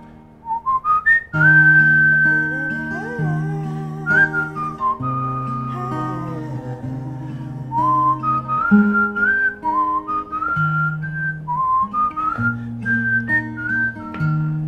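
A person whistles a bright, wandering melody of clear high notes, gliding and stepping between pitches, over a steady backing of sustained low instrumental chords, with no talking.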